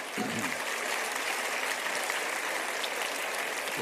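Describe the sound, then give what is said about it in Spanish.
Sustained applause from an audience, a dense, steady wash of many hands clapping at once, fairly loud and continuous throughout with no talking over it. “No sé exactamente qué aplauden, pero me imagino que es a Víctor Hugo, ¿no es cierto?”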